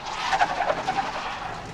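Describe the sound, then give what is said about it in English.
A truck engine runs with a steady, hissy rumble, and faint squealing tones rise briefly over it early on. No one speaks. “Okay, uh, yeah, park the truck.”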